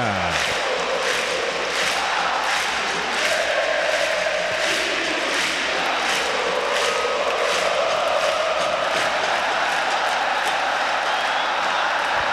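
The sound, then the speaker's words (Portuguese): A huge football stadium crowd celebrates in a steady, loud roar as Grêmio leads Corinthians 1–0 late in the second half, with faint rhythmic pulses like chanting or clapping running through it the whole time. No one speaks. “O Grêmio vai vencendo. 1 a 0 e a torcida vai fazendo a festa.”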